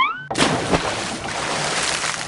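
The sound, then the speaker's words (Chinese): A brief rising tone gives way to a sudden loud splash as a son jumps into a pond to chase a toad, followed by steady churning and sloshing that continues to the end, with another thud-like splash partway through. “扑通一声。儿子就跳进池塘去追蛤蟆了，折腾了半天，终于让他抓住了那只蛤蟆。”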